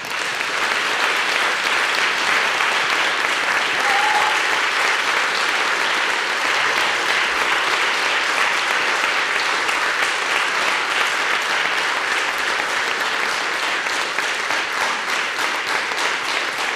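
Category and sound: crowd, audience applause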